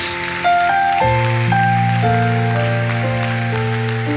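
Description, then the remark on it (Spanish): Dense, steady clapping from a crowd giving applause to the King of Kings fills the background, mixed with sustained keyboard or organ chords that shift every half second or so. No one speaks. “Aleluya, vamos a darle un aplauso al Rey de Reyes.”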